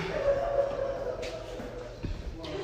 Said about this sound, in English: This is her crying. You can hear her crying.